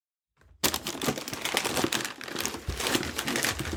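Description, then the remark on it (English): Tape ripping and cardboard crackling as a cardboard box sealed with feed.com tape is pulled open, a steady, harsh crinkly rasp that runs without pause for several seconds, with no one speaking. “I've already I'm opening it up.”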